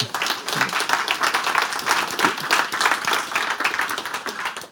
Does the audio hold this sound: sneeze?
no